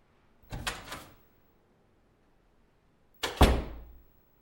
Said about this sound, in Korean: 그런 생각을 하고 있을 때 회의실 문이 열렸다.